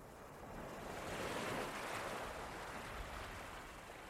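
Ocean waves wash steadily onto a beach, a broad continuous roar of surf that swells gently and recedes, with no voices present.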